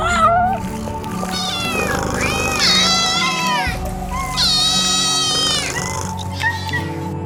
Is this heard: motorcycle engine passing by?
no